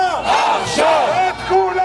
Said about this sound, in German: Wir wollen ein Abkommen zur Freilassung der Geiseln. Wir wollen sie jetzt zurück, ruft die Menge in Tel Aviv.